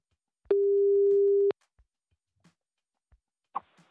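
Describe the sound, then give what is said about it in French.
A telephone busy tone after a hang-up: one steady, fairly loud beep lasting about a second, bracketed by clicks, then quiet with a few faint handling noises near the end. “Non, mais monsieur, euh, répondez, arrêtez de me raccrocher au nez à chaque fois que je vous pose une question.”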